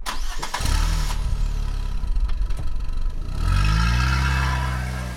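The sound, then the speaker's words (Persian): A car engine cranks and catches, idles with a steady low rumble, then revs up and rises in pitch as the vehicle pulls away and drives out of the town, loud with no voices. “ماشین را افتاد و رفت و رفت از شهر زد بیرون”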